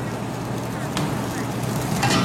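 Stir-fried food, seasoned with salt and pepper and cooked through, sizzles with a steady, dense crackle, broken by two brief, sharp scrapes as it is scooped from the wok onto a plate. No one speaks.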